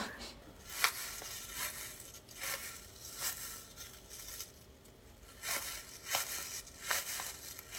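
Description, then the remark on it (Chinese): A crinkly, crunching foley prop used in Little Monster (小怪物) mimics an old man's footsteps on grass: a series of soft, papery crunches at an uneven walking pace over a faint rustling bed, with no voices. “这是我之前就是我在小怪物里面的一个道具，然后当时他是在讲述一个告别的这么一个故事，是一个老爷爷，然后他和他的一个好朋友是一个巨型的怪、怪石人，然后跟他告别，老爷就会在那个草地上走嘛，他还要去寻找他，会跑”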